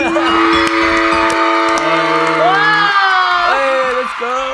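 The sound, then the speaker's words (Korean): A man screams at the top of his voice, the loudest he has ever yelled, while acting out a line on a live broadcast: one long, loud, strained yell that holds a steady pitch for several seconds, with brief breaks, and then rises again near the end. “살면서 제일 크게 소리 지른 거죠 지금?”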